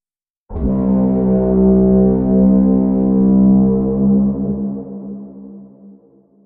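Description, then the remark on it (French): A dense, dark synth-like sample tone swells in abruptly and sustains, thick and heavily compressed with muffled highs, then fades into a washy reverb tail. No voices. It is processed with EQ, a drastic low-pass filter, OTT multiband compression, reverb and a final limiter. “Puis avec une compression multibande OTT et de la reverb, traitement au limiteur final donne ceci.”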